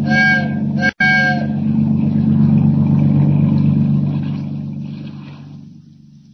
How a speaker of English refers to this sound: Signal that freighter to heave to. Give her the whistle. Aye, aye, sir.